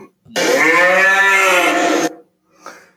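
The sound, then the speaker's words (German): A cow, Bertha the 'bureaucracy cow' (Bürokratie-Kuh), lets out a single loud, drawn-out moo lasting nearly two seconds, rich in harmonics, followed by a brief faint grunt-like sound. No one speaks. “Und jetzt kommen wir zum Punkt Bertha, die Bürokratie-Kuh.”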